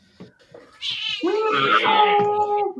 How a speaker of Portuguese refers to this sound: É a minha maldição, é a minha maldição do, dos gatos, sabe? Tipo, não tem muito eu, eu qualquer podcast que eu for gravar tem um gato atrás miando.